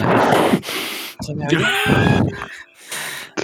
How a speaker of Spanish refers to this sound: Que eh, tiene la manía, que sepáis que tiene la manía de decir que respiro fuerte porque soy un tío poderoso y me sale el poder por la respiración.